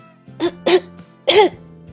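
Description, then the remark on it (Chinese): Three short, voiced coughs performed by a voice, two quick ones followed by a slightly longer, louder third, with a faint low hum underneath and no talking; a character in a children's story showing a doctor a slight cough from catching a chill. “我有点咳嗽，就像这样。”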